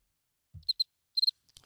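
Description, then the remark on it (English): Crickets chirp in short, high-pitched bursts, a pair of chirps followed by a quick trio, clear against otherwise quiet surroundings, with a soft low thump near the start. “I know crickets, man.”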